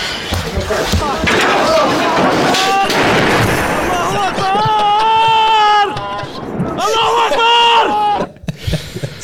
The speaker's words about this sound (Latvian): Tā skaņa bija, ka tev koalīcija uzmet bumbas uz jumta.